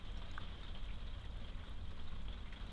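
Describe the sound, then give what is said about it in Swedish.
Soft, steady patter of raindrops on a roof, a dense hiss with occasional distinct drips, fairly quiet, with no voices. “ja för, för vi hör ju att det plippar och ploppar på taket.”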